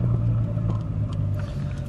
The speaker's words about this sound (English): Although, again, it's just me in my car driving around.